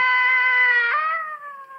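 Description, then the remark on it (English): A small child's drawn-out crying wail, one continuous high, tonal cry that dips in pitch partway through and trails off, heard alone with no talking. “there was a voice crying. The voice of a little kid.”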